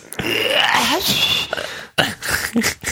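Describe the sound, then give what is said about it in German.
A person whistles, imitating birdsong with warbling, sliding notes and trills, breaking off briefly near the end before a few more chirpy phrases. “ich weiß nicht, wie gut man das Gepfeife hier hört.”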